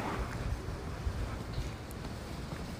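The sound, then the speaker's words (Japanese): Strong wind on a windy day buffets the microphone while someone records on a walk outdoors, producing a continuous low-frequency rumble with irregular gusty thumps throughout, loud, with no speech. “今日もそうなんですけどもしかしたらこの風の音とか今日ちょっとね風が強いんでねあとは何やろう車が通り過ぎたりとかする音とか聞こえてるかもわからないですね”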